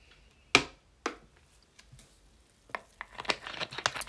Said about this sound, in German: Ich muss jetzt mal kurz einen Schluck trinken, weil ich rede immer viel zu schnell. Ein bisschen ASMR. Ich weiß gar nicht, aber hört man diese. diese. Diesen, diese Kohlensäure-Dingsbums? Ich weiß gar nicht. Ich trinke mal kurz was.